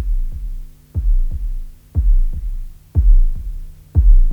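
A deep, muffled heartbeat thumps in a steady double-beat pattern, roughly once per second, loud with a low hum underneath and no voices.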